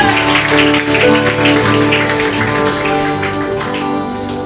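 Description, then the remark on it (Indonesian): A church audience claps steadily and densely for several seconds in praise to God, a continuous crackling wash of hands over sustained, held musical tones, with no voices speaking. “Beri tepuk tangan yang terbaik bagi Tuhan kita, bagi Tuhan kita, bagi Tuhan.”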